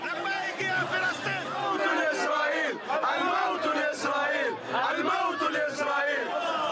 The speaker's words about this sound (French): Des centaines de manifestants rassemblés pour crier leur colère contre l'État hébreu.